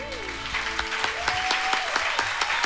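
A steady burst of applause, many hands clapping in a dense, even patter that holds at a fairly loud level, with a faint tonal hum running underneath.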